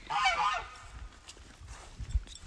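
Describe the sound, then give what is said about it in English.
A goose lets out a loud, harsh honking burst at the start, then falls quiet, leaving only faint low rumbles and a soft thump in the background. “now my goose wants to get involved.”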